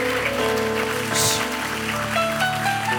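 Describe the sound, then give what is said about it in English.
A crowd claps steadily for about three seconds, a dense, continuous patter of many hands, with sustained musical tones humming underneath and no talking. “Oh, look at the way you are clapping.”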